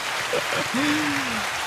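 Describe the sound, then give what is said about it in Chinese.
A steady patter of applause fills the short clip at even loudness, with a brief vocal sound, like a drawn-out hum or cheer, rising over it partway through. “那个好像有点干，我是不是应该来点掌声？”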